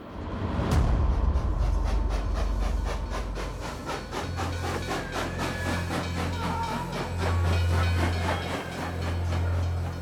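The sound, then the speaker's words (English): A train rolls steadily along the rails, its wheels clacking in a regular rhythm over a deep continuous rumble, after a sharp metallic clank near the start. “Sometimes thousands of people arrived at the camp in one day, ferried across Europe in cattle cars.”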